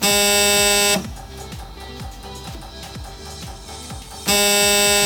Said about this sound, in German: den meisten Stellwerken standen früher sogenannte Allfernsprecher, ein Apparat, der mehrere bahneigene Telefonleitungen, das Funkgerät und die Bahnsteigdurchsagen in einem Gerät kombinierte. So klingt es übrigens, wenn der Allfernsprecher klingelt.